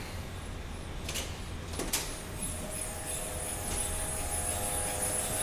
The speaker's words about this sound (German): Der Kühlschrank atmet sehr laut. Genau, ja. Im Quantenlabor der ETH hört man direkt, dass es hier sehr kalt sein muss. Die Kryopumpen machen ein ziemlich unverwechselbares Geräusch.